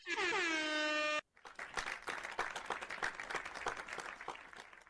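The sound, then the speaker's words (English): A blaring air horn sounds for about a second, then cuts off into sustained, dense applause from a crowd, many hands clapping steadily and loudly until the end. “Uh, I think for that one, I think they probably deserve a uh, applause, don't you say? I think they deserve all three at the same time.”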